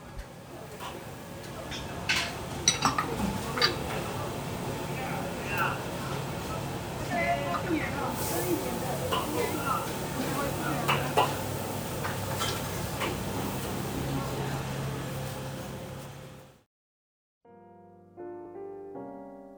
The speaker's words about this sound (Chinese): 现在听到的是民雄百年市场的声音，录音的地点在泽雄面摊，它是六十年的老店。